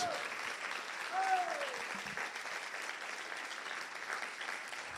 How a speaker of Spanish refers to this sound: Si tú lo crees, dale un aplauso fuerte a Jesús.